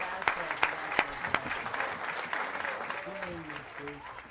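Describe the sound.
Welcome applause from a crowd greeting a guest as she is introduced, a dense wash of clapping with a few sharp louder claps early on, steady at moderate volume, with faint voices emerging toward the end.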